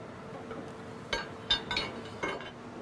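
The heavy metal upper half of a die, jerked back and forth with heavy hooks across ink-coated surfaces to spread the spotting ink: four or five short, irregular scraping clanks with a bright metallic edge over a steady low hum, no voices.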